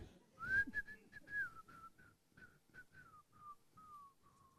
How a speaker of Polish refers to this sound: Jak wielu z Was chciałoby e, tak jeździć samochodem, że gwizdżesz sobie? No, nie na znaki, nie na świat, ale gwizdżesz sobie z radości.